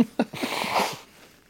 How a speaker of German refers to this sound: bevor ich mir jetzt, aber das, äh, das Äußere muss ich kurz die Nase putzen.